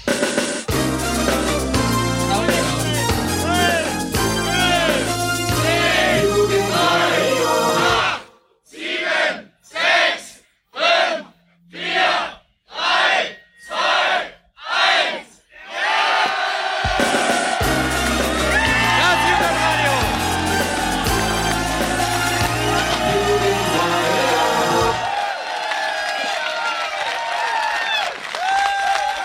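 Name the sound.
crowd cheering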